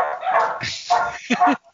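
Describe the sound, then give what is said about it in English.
A female dog at a park barks repeatedly in short, quick bursts, fairly loud, the barks turning a bit yippy and whiny toward the end before stopping. “took our dog to the park. I don't know what she's barking at unless it's a deer.”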